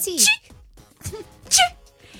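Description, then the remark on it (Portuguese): A voice imitates the sneeze type likened to the Disney mouse, with a few quick, delicate, high-pitched squeaks, three short bright bursts spread over about two seconds, each light and cute rather than forceful. “é aquele que produz apenas um delicado guincho ligeiramente agudo, mas muito fofinho, muito cuti cuti”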